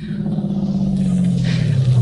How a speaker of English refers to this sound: Well, what are you doing now? Stopping the car.